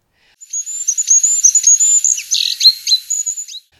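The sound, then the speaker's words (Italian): A goldcrest on a mountain trail in falling snow gives a very high, thin whistling call, a rapid run of shrill notes lasting about three seconds, clear with no talking, as it pauses briefly and then flies off. “Tra i rami continuano a sfrecciare veloci uccellini e per un istante un regolo si ferma a guardarci, poi fischia e si allontana.”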